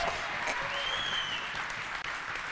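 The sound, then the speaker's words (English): A crowd claps steadily in praise of Jesus during a sermon, a dense wash of many hands applauding together, fairly loud and sustained throughout with a few faint cheers rising in the background. “If you believe that, I want you to put your hands together and give Jesus a shout of praise.”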